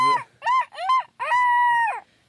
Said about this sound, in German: Und jedenfalls, jetzt habe ich es eingestellt und demzufolge klingelt morgen früh nicht der Wecker, sondern es kräht der Hahn.